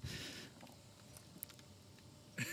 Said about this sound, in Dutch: ik hoor nu de druppels, eh, de regendruppels op, jou, eh, op jouw helm.